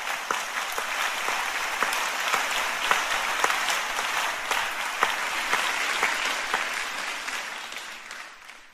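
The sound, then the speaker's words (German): A crowd gives another round of applause to a welcomed group, clapping steadily for several seconds, a dense wash of clapping with scattered sharper claps standing out, holding at an even level before cutting off. “Geben wir Ihnen nochmal einen richtigen Applaus.”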